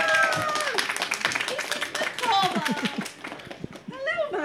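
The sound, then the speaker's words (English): An audience claps steadily in a dense, crackling patter as a volunteer from the audience comes up on stage, with excited voices and whoops rising and falling over the applause throughout. “Please come on right on up around the other side, riding a thunderous wave of applause from the audience as you make your.”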